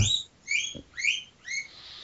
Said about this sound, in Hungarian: itt van természetesen, ha már hallottátok a malacot